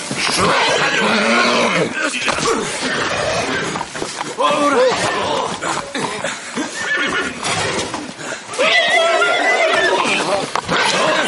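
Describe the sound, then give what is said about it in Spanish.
A horse neighs loudly, with repeated high, quavering whinnies and snorts filling the whole stretch in restless, agitated bursts. “Ese caballo está medio loco.”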